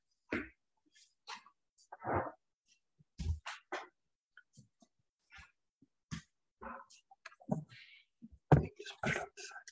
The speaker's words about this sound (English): Um, hold on a second, I'm gonna take a little sip of water.